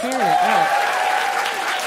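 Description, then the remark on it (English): Steady audience applause for the guests fills the space, a dense crackle of many hands clapping at once, with a few voices and cheers rising over it near the start. “And I also want to have another round of applause for our amazing guests.”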